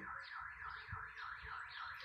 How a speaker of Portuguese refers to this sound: Ó, não sei se está captando o som aí, esse alarme de carro roubado aí é que saiu pão fresco no, no mercadinho ali embaixo, é aqui pertinho. Aí eles colocaram um alarme para avisar para avisar a cidade inteira que tem pão fresco.